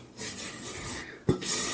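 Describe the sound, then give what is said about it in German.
A rubber spatula scrapes around a mixing bowl in soft, continuous rasping strokes, with a brief louder knock partway through before the scraping resumes. “Aber das Doofe an so einem Gummischaber ist, man da die Schüsseln ziemlich gut mit sauber kriegt.”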